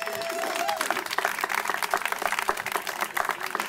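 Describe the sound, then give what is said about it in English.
Audience applause for organized labor: a steady, dense wash of many hands clapping, fairly loud and sustained for a few seconds with no individual claps standing out. “Organized labor, go ahead, clap for that, please.”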